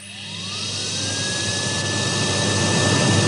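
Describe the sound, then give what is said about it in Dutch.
A vacuum cleaner motor spins up, its whine climbing in pitch over a steady, loud rushing roar that grows slightly louder, with no voices. “Dit zullen de meeste mensen toch wel herkennen als een gewoon stofzuiger.”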